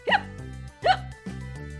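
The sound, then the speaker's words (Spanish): Two sharp hiccup sounds, evidently voiced by a person imitating them, spaced under a second apart, with a soft sustained tonal background in between. “La ovejita se comió la zanahoria tan rápido que le entró hipo.”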